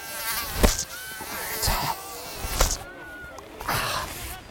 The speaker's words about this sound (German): Die Hitze hier, und bei dem Wetter sind nur noch Mücken im Zimmer.